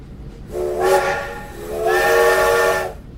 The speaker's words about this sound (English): Ooh, that's the sound that the train makes when Jeff is leaving. Toot toot.